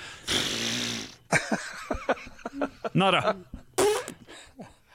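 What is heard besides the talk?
blowing nose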